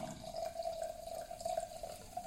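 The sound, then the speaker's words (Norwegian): Wine pours steadily into a glass, a continuous bright trickling with a faint rising tone as it fills, with no voices over it. “jeg skjenker opp i det Det skal du få lov til.”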